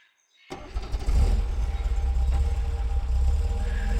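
After a brief silence, a car engine cranks and catches, then settles into a loud, steady rumbling idle, with no voices.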